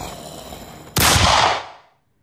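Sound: gunshot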